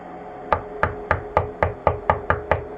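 About nine sharp knocks on a door at ten o'clock, in a quick, steady rhythm, each a crisp thud of similar strength, with no voices.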